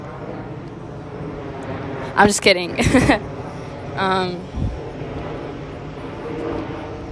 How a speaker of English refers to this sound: Oh shit, another plane's passing above me. Great. I think I'm gonna go step inside, but I kind of like being out here. So let's take a moment of silence for this fucking plane to pass.